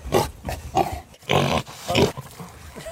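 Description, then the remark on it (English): A pig grunts and snorts repeatedly, a run of rough, nasal bursts with short gaps between them and no talking. “So that is a uh, grunt the pig, snort of freedom, the pig that was banned from walking because he was a pig uh, in council.”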